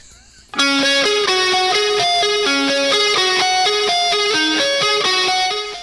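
A loud, distorted electric guitar kicks in abruptly and plays a repeating, ringing melodic riff with a rock band sound, continuing steadily with no voices.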